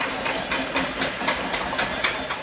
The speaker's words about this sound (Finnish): Padat ja kattilat paukkuvat nyt iltaisin parvekkeilla Myanmarin suurimmassa kaupungissa Yangonissa.